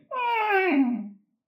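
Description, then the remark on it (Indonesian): A voice imitates a creaking old door: one drawn-out, strained vocal tone about a second long, sliding downward in pitch and breaking into a raspy creak at the end. “suara eh, pintu tua yang ketutup”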